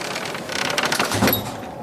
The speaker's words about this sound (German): leg den Riegel vor. Ich will nicht, dass der Sturm die Tür aufschlägt und alles durcheinander wirft.